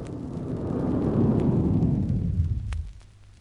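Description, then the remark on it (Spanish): A deep, continuous roar of rocket thruster jets braking a rocket's backward descent onto the Moon rumbles steadily for nearly three seconds, then cuts off abruptly as the rocket lands and fades to quiet, with no voices present. “Los propios chorros de los cohetes propulsores amortiguan el descenso.”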